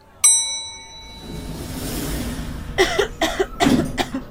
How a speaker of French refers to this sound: Tousser en 2006 n'a pas la même signification qu'en 2020. C'était le plus souvent synonyme de tabagisme à l'époque.